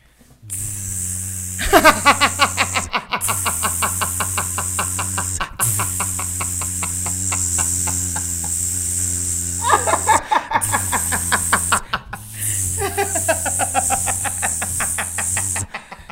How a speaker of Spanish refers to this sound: Por favor, vamos a cargar la, afeitadora un poco más para poder seguir. el otro al otro sobaco.